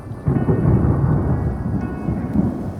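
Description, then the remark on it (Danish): A heavy, booming rumble of thunder, with lightning, echoing in the mountains at a campsite, rolls in abruptly and sustains at loud volume, deep and reverberant, with faint rain-like texture and no voices present; it is not raining. “Det tordner rigtig meget af lyner.”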